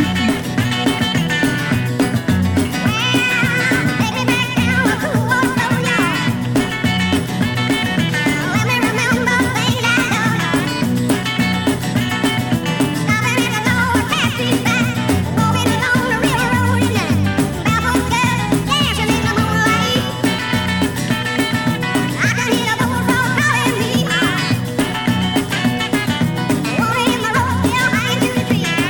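A late-1960s swamp rock song plays steadily at full volume, with a driving band of guitars, bass and drums filling the whole stretch and no one talking over it.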